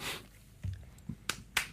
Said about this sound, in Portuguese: Estou a aplaudir, não sei se estás a ouvir, mas estou a aplaudir.